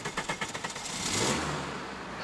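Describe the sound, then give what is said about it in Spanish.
A car engine cranks with a quick series of rhythmic pulses, then catches and rises into a loud rev before settling into a steady rumble, as a woman starts a doctor's car whose keys had been left in it. “Silvia sube al auto de la doctora que quedó con las llaves puestas”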